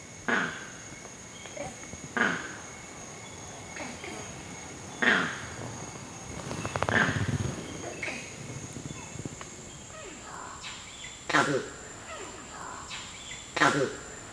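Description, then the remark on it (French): A male monkey gives loud, harsh two-part "krakoo" alarm calls, signalling dangers coming from the ground, repeated about five times at irregular intervals, over a steady high-pitched hum of forest insects. “Le cracou, c'est la même chose que le crack, avec un suffixe ou en plus à la fin, qui est mis euh, lors de divers dangers qui, qui proviennent du sol.”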